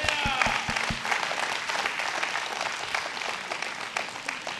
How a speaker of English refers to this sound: Give God a hand clap. It's good.